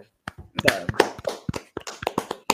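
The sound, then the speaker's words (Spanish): Hands clap in a quick, uneven burst of sharp smacks, a dozen or so in under three seconds, loud and crisp with a faint murmur of voices underneath. “¿Cuántos goles? un aplauso, mano, para”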